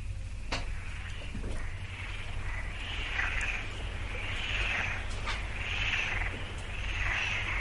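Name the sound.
frogs calling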